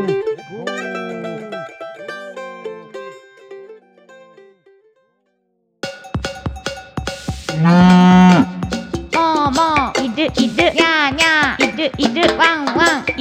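Three drawn-out cattle moos sound in steady succession, loud, followed after a short silence by a lively musical jingle with singing voices.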